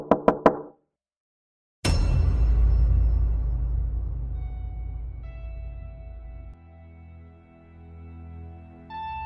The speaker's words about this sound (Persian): اومدم برم تو حال که دیدم یکی داره میزنه به در خونه